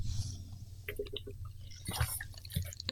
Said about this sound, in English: I caught him drinking water. My fault. I got this big ass jug of water that y'all can only see on the, um, the video version of the podcast.